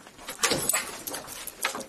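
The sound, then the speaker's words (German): A key rattles and turns in a door lock in Lübeck, unlocking the way to a baroque room, a few metallic clicks and scrapes in quick succession, fairly quiet, with no one speaking. “Der Schlüssel dreht sich im Schloss.”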